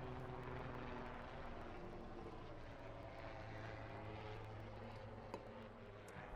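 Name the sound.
helicopter flying overhead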